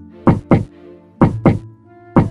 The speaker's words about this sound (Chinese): 电梯停在一楼，他跑到三三七号房前敲门，连敲两下，重复三次。